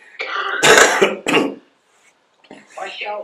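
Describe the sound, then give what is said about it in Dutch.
A few harsh coughs and throat-clearing rasps come in quick succession, then a short pause before a voice briefly speaks. “ik moet even weer Marokkaans blaffen.”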